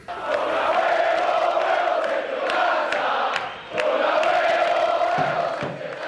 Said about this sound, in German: Jubelrufe aus Argentinien vom gestrigen Wahlabend sind das, als der Präsidentschaftskandidat Sergio Massa die Bühne betritt. Ja, und Sie hören es vielleicht schon an den Gesängen, er hat ein unerwartetes gutes Ergebnis eingeholt.